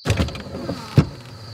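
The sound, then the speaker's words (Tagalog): A car's power window hums as it is slowly rolled down for a man who knocked from outside. A steady motor whine runs with a few soft clunks and a sharper thump near the end as it stops. “Binuksan ko ang bintana ng kotse. Dahan-dahan.”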